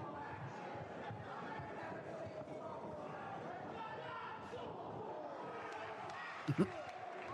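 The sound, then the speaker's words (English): A wrestling crowd at an ECW show roars steadily throughout, a dense wash of cheering voices reacting to a lariat, and near the end a couple of sharp heavy thuds cut through the noise. “the crowd love it. The crowd love a good lariat.”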